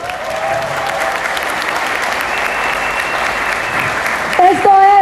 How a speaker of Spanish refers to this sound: Por eso es importante y por eso también quiero que ustedes vuelvan y se peguen un aplauso por estar hoy aquí.